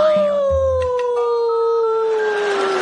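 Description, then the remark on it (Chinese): A voice imitates a wolf howl: one long, loud, unbroken wail that starts high and slowly slides lower in pitch for about three seconds, with a faint low rumble near the start. “留，嗷一嗓子，我这条狗命就留下了。”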